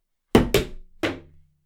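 Someone topples over with a drum: three loud, heavy thumps, a quick pair and then one more, the last leaving a low ringing hum as it fades, with no voices.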